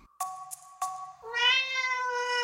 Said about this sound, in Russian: И тут за дверью кто-то громко промяукал.